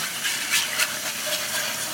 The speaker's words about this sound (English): So I'm going to grab some milk whole milk, please. You can't make gravy with skim milk, guys. I'm sorry. I'm gonna turn up the heat just a bit and then whisk the whole time while I pour the milk into the pan.